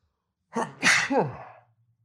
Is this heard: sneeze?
yes